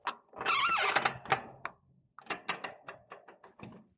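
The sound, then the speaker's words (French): A door in a château, with a caiman skin hanging on its back, swings shut with a rough, squeaky creak, followed by a scattered series of light clicks and knocks as it settles and latches. “Alors, j'ai refermé la porte puisqu'il y a aussi des objets de collection euh, qui s'y trouvent, notamment ici une peau de caïman qui est accrochée donc au dos de la porte.”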